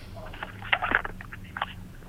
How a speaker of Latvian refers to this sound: Dzirdēju, lapas čaukstēja, bet klausītāju nedzirdu. Jā, klausītājs iespējams bija sagatavojis kādu runu rakstveidā, bet tā arī nepateica.